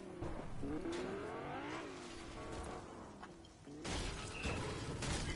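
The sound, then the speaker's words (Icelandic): A video game car engine hums and revs steadily with rising and falling pitch, a burst of louder roaring and mechanical noise near the end, with no talking. “Ég ætla að vera að keira á punktu næst.”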